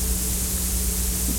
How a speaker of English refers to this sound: Now, I'm sure you all recognize this. This is called Hiss